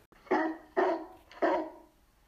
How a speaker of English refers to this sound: A dog could be heard barking in the distance.